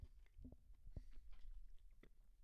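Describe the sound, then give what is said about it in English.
Chewing of a crunchy Oreo cookie into the microphone, with wet, irregular crunches and mouth noises, no talking. “I have another Oreo in my mouth. I'm sorry. I said I wouldn't chew into the mic, but that was a little treat for you.”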